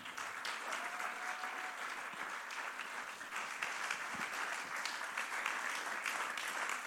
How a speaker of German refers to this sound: Deswegen lass uns einen großen Applaus geben